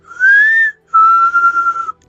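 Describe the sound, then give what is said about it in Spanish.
A person whistles two clear, sustained notes imitating the Silbón's whistle: a short, slightly rising one, then after a brief pause a longer, steady tone. The whistling is loud and alone, with no talking. “aquí hay este, bastantes digamos, como, como experiencias con el silbón que dicen, cuentan, que si escuchas el silbidito...”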